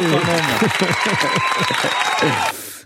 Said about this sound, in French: Je, vais m'auto-applaudir. Bravo